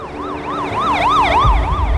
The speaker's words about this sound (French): Daniel Pita remonte Lake Herman Road, sirène hurlante.